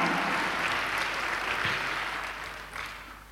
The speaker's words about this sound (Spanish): Alabado el nombre de Jesús. Dale un fuerte aplauso a Dios, hermano, por eso.